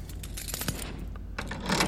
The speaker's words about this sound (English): The room fills with the sound of locks turning.